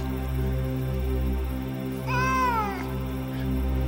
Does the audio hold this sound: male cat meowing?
yes